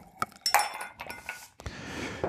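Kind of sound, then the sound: household object, ice cube clinking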